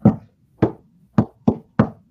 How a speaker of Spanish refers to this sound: avanza guiado por el eco de los tambores.